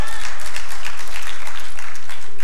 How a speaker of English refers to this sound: And yet, when we read that, yeah, that's worth a hand clap. We give praise to God.